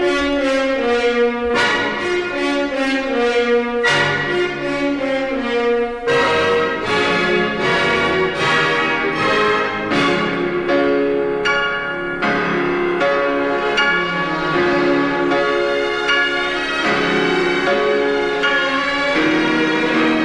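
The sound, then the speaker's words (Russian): The grand orchestral opening of Tchaikovsky's Piano Concerto No. 1: loud, sweeping orchestra with heavy, regularly struck piano chords ringing over it, steady and full throughout with no talking. “вот, собственно, первый фортепианный концерт Чайковского, все, конечно, знаете.”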